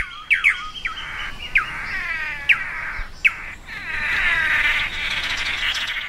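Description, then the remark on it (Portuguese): A tangará (manakin) calls in a series of sharp, high chirps and rising whistled notes, repeated at irregular intervals over a continuous bright, buzzy trill, with no talking. “eu acho que uma figura é o tangará, né? Que todo mundo conhece.”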